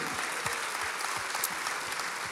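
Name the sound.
audience applause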